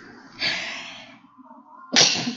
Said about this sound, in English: I sneezed. It's okay. you can edit it out.